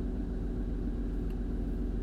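A steady, low engine rumble fills the cabin of a car on a cold morning after earlier rain, a constant droning hum with no voices and no change in level over the short stretch.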